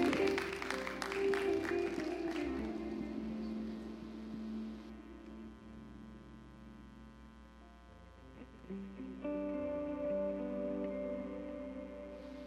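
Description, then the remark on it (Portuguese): A church audience claps and applauds for Jesus for a couple of seconds, then the clapping fades and soft, sustained keyboard chords carry on alone at a steady, moderate level. “Você pode dar um aplauso para Jesus?”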